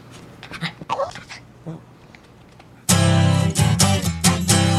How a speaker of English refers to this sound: Good, because I have a small dog in my vehicle.